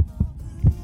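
A deep, muffled heartbeat thumps in a steady lub-dub rhythm, two paired beats close and low, with a faint hum beneath and no voices.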